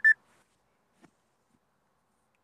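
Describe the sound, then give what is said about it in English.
A single short, high-pitched electronic beep from a phone timer sounds right at the start, then near silence with only a faint soft tap afterward. “It seems like I got a timer or something going off on my phone.”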